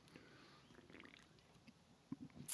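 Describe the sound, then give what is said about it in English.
Someone sips White Claw hard seltzer from a can: soft, wet mouth and swallowing noises, quiet at first, ending in a few louder gulps and a sharp fizzy burst. No one speaks. “Let's have a sip of White Claw.”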